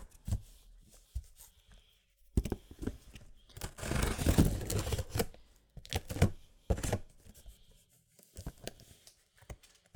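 A cardboard box holding a wrapped gift being pulled and torn open while a cat watches nearby: scattered crackling and scraping bursts, with a long, loud rasping tear in the middle and more rustling handling afterward, no voices.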